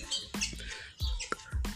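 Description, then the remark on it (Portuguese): Small birds chirp in short, quick bursts, several calls repeating in an irregular rhythm, with no voices heard. “Então estou voltando às oito com passarinho, galo, galinha, cachorro né, que fazem parte do meu do áudio.”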